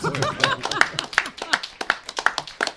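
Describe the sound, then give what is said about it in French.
Audience applause in a steady, rhythmic beat, sharp claps landing roughly three times a second, fairly loud, with voices mixed in at the start. “Alors vous l'applaudissez encore plus fort.”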